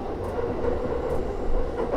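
Steady rumble of a Yamanote Line commuter train in Tokyo rolling along the rails toward Ebisu station, a continuous low roar with faint rhythmic clatter from the wheels, heard from inside the carriage with no one speaking.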